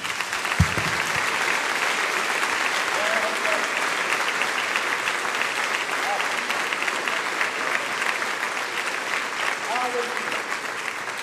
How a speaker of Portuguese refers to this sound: Mais uma vez, vamos aplaudir o nome do Senhor.